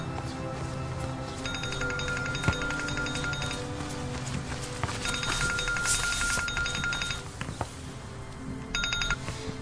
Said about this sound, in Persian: موبایل من داره زنگ میخوره